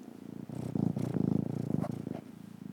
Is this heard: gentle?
no